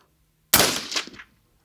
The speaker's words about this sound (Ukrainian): Ще раз, те ж саме. Давай, три постріли в тебе. Звикай до цього. Прицілилась, дихання, плавний спуск. Не кидай палець. Потягни на себе.